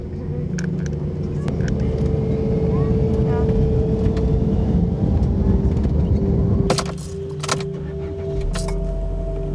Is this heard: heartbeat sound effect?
no